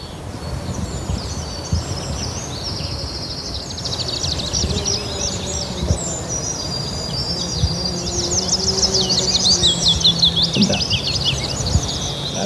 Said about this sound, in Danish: Nu kan vi høre løvsanger meget fint herinde fra Birkelunden herinde ved siden af.